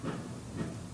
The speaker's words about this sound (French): Vous pouvez me dire ce que c'est C'est le bruit de la bétonneuse. Et ce n'est rien du tout ce bruit par rapport à ce qu'on entend tous les jours. C'est un petit bruit, vous entendez C'est notre vie.